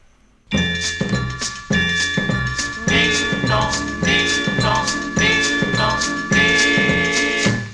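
Baião dance music kicks in after a brief pause, with bright chiming bell-like tones over a steady, bouncy rhythmic beat, loud and upfront, with no singing yet.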